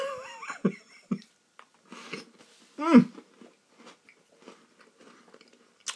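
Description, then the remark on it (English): Crunchy chewing of Oreo cookies with irregular bites and mouth sounds, punctuated by a louder vocal grunt or murmur midway, then quieter intermittent munching. “Oreos are the best, right? Nothing like them.”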